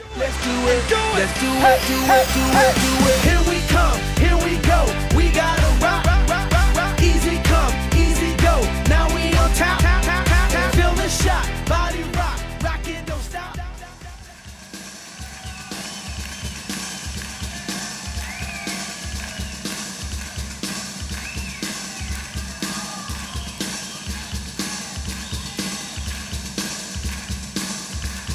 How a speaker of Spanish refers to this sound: me dijiste, oye, pon esta canción, que es … de …